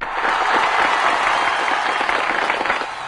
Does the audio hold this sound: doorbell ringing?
no